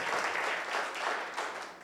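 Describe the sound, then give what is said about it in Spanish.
An audience applauds steadily, a dense wash of many hands clapping at a moderate level with no voices over it, swelling slightly in a few waves before easing. “Entonces, bueno, vamos a darle un aplauso a Dios por nuestros hijos que que escuchan consejo.”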